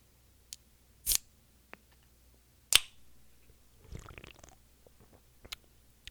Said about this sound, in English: Um, and I'm gonna enjoy this um, energy drink that I have here. Oh, this looks very refreshing.